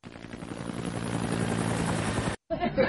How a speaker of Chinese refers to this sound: 没有温暖的时候，我一定会坐着直升机来给你们送温暖的。